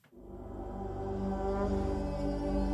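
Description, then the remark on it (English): A single sustained blast on a shofar, a ram's horn, giving a rich, buzzy horn tone that swells in loudness and holds steady for a few seconds without any voices. “It will be signified by the blowing of the shofar.”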